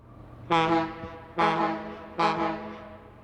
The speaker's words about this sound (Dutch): Oké, ik hoor het geluid van het scheepshoorn.